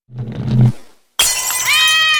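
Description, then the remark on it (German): A low thud or scrape is followed by a short pause, then a loud crash of a porcelain Ming vase shattering as playing Burmese cats knock it off its pedestal, with bright ringing tones lingering as the pieces settle. “So klingt es, wenn ihre Burma-Katzen beim Spielen die neue Ming-Vase vom Sockel stoßen.”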